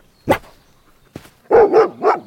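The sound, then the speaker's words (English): A dog named Justice barks several times: one sharp bark, a brief pause, then a quick run of three louder, tonal barks in succession with no talking. “All right, then, let's go, dog.”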